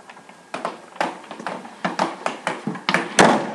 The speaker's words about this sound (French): La porte s'est refermée derrière nous